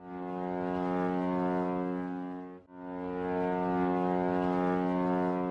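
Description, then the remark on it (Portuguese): The horn of the steamship Paraguaçu blows two long, loud, deep blasts with a brief break between them, its rich harmonic drone sustained and steady, with no voices. “Quando entrou dezembro, a cada som do vapor Paraguaçu, botávamos o ouro na porta.”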